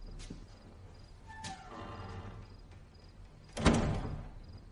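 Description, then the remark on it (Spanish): A bedroom door rattles and scrapes as someone enters, then shuts with one solid, loud thump near the end; no voices are heard. “Entra y cierra la puerta.”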